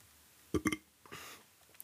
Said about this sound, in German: Warum rülpse sich immer in diesem verfickten verfickten Podcast. Ich rülp sonst nie. Okay, manchmal. Aber ich rülps nie so richtig laut, nur wenn ich aufnehme. Ist verrückt.